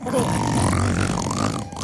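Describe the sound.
A voice imitates a wife's loud snoring in bed at night: one long, rough, rattling growl held for almost two seconds, deep and throaty, steady in loudness before trailing off at the end.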